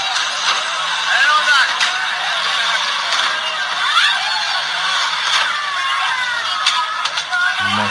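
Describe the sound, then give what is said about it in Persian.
A dense crowd in Tehran shouts and clamors continuously while attacking a cleric's car, sharp bangs and thumps striking the car at irregular intervals, with an engine and traffic noise underneath, loud throughout. “بچه ها فیلم چیزو گذاشتم با هم ببینیم فیلم حمله به ماشین اخوند در تهران عصبانیت مردم ببینیم”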